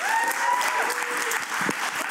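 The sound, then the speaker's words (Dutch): A short burst of steady applause congratulating the broadcaster Omroep Zwart, dense clapping filling the whole moment at an even level, with a few faint whistle-like tones gliding through at the start. “Verdient wel een applaus, denk ik.”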